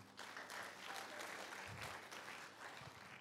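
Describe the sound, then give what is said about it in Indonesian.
A church audience breaks into steady, sustained applause for God, a dense wash of many hands clapping at an even loudness for a few seconds with no voices on top. “Kita beri tepuk tangan yang hebat bagi Tuhan.”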